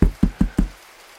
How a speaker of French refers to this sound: Et j'ai arrêté la voiture, je suis sorti, j'ai tapé à la porte.